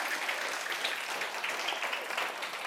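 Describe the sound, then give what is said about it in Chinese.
Steady audience applause, a dense wash of many hands clapping at an even level throughout, with no voices rising above it. “给我自给我一个鼓掌，好不好？”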